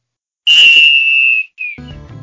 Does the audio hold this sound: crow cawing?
no